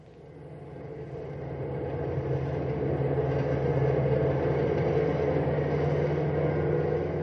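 A cross-country bus carrying a full load of 55 sleeping passengers, pushed hard at night on the drive from Junction City to Knotty Pine, roars in a deep, steady drone, swelling over the first couple of seconds and then holding loud with a low rumbling hum throughout.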